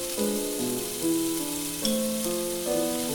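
Diced food sizzles steadily as it browns in a pan, a continuous crackling hiss that holds even throughout, with soft tonal notes shifting underneath. No one speaks.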